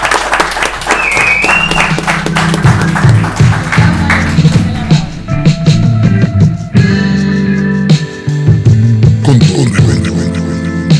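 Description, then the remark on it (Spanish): An audience applauds loudly and steadily for about eleven seconds, a dense wash of many hands clapping, with a low sustained tone humming underneath. “Con todo respeto, aplauso para ellos.”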